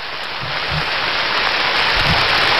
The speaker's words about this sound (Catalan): La, eh, la puja final, de sobte, on es posa a ploure i els jugadors els, i els socis es refugien davant de la sala d'estar pa, esperant que pari, i la cosa no, no deixa de parar.